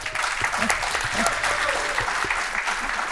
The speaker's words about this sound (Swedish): Det har gått med lite applåder, hur?